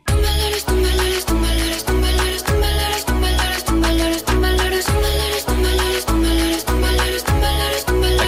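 A pop song plays loud and close, driven by a steady, punchy beat about twice a second over heavy bass, with no talking over the music.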